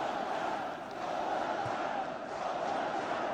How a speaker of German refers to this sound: Da muss man erstmal klatschen. das läuft. Läuft super. Guck dir mal die Masse